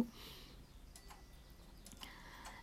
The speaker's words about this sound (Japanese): あとちょっと時計の音がですねなってしまったんですけれども